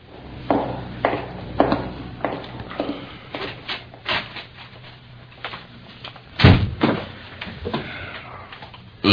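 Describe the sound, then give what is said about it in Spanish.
A door is handled, with a series of knocks and rattles followed by a louder thud as it shuts, amid scattered footsteps and shuffling. “Sales por esa puerta, que ahí nos aguardan tantito, ¿eh?”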